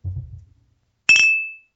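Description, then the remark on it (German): A single bright clink of beer bottles rings out sharply, its clear metallic tone lingering and fading, after a brief low rumble at the start, as a beer is handed over for a toast. “So, jetzt erstmal hier ist ein Bier.”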